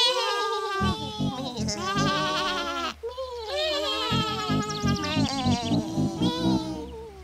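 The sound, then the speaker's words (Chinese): A chorus of sheep bleats in loud, overlapping, quavering cries that keep going almost without a break, with only a brief pause partway through. “奇怪了，白羊们怎么都还没来呢？”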